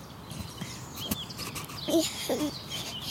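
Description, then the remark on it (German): Birds chirp in a forest, with a few short, separate calls rising over a steady outdoor hush and a brief rustle or knock partway through. “Wir sind gerade im Wald. Hier ist schönes Vogelgezwitscher.”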